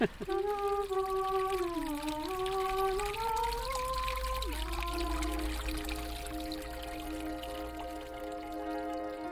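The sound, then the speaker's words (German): Water from the Castalian Spring at Delphi, Greece, pours and trickles steadily, a continuous bright splashing rush, with a sustained tonal hum running beneath it that shifts pitch early on before settling. “Beim griechischen Delphi fließt Wasser aus der kastalischen Quelle.”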